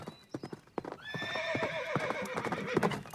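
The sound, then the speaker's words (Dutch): Rapid hoofbeats clatter as a black horse gallops, and from about a second in a long, shrill neigh rises and wavers over the drumming hooves. “Oh, wat een prachtig zwart paard was dat, zeg die kunnen ook zo hard.”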